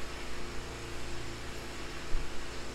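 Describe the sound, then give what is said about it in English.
A steady mechanical drone of lawn mowers running outdoors as several people mow their lawns, a constant engine hum with a broad noisy wash over it and no one talking. “There's like eight people mowing their lawns”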